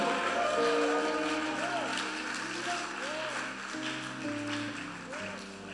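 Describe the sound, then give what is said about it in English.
A crowd claps its hands and gives a shout of praise together in a steady, dense roar over sustained keyboard chords, the cheering and applause filling the space loudly from start to finish. “Clap your hands and now a shout of praise.”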